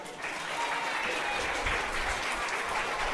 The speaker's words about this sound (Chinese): 来，热烈掌声欢迎我们一家姐姐。